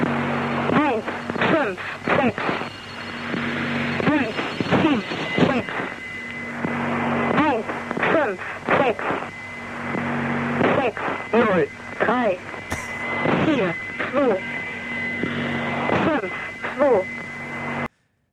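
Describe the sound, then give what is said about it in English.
A crackly shortwave numbers station broadcast plays steadily: a distorted, warbling voice reads out short bursts in German over constant static and humming carrier tones, with occasional whistles. “we went from fuel to number stations.”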